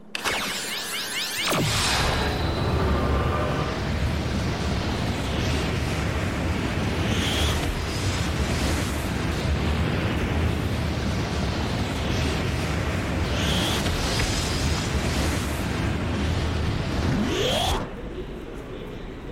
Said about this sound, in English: To get from one place to another this time, I have a special portal device, which opens a portal between this world and wherever we're going. Then we jump in and slide to our destination